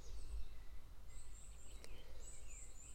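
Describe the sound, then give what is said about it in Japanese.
Faint chirps of small birds, thin high calls drifting in and out over a soft low outdoor rumble, with no one speaking. “今日もね小鳥の BGM の中お届けしました”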